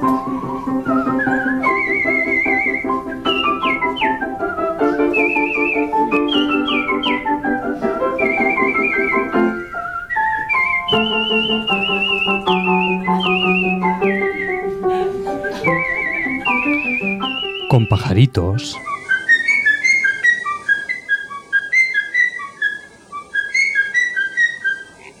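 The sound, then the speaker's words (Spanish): A lively tune whistled over a musical accompaniment, the clear high notes gliding and hopping through a long, continuous melody, with a brief sweeping break partway through before the whistling resumes. “Con silbidos.”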